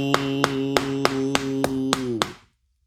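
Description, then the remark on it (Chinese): Eight sharp wooden thumps as yamen constables strike large wooden boards against the ground at a steady, even pace, over a long, sustained droning chant of low voices. The chant sags slightly in pitch, then both stop together. “你听那大板子拍地，啪啪啪啪，哪见过这阵势？”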